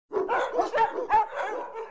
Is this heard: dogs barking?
yes